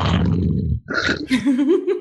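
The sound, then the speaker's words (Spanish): A voice imitates an uncle's snoring that kept people awake at 3 a.m. at Christmas: a loud, rough, rattling snort lasting under a second, then a brief pause and a higher, wavering voiced drone. “hermano, no te miento, eran las 3 de la mañana y no podíamos dormir de los ronquidos de mi tío.”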